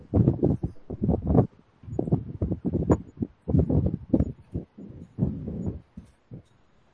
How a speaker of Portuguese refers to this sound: ele tem que fechar o microfone, né? Com essa ventania vai ficar ruim, né? É, para o pessoal conseguir ouvi-lo, né?